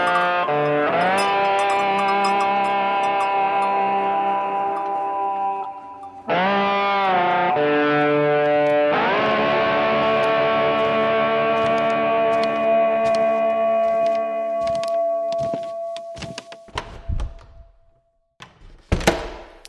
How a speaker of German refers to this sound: Jetzt kommt gleich noch der, das Intro, worauf du dich schon so freust.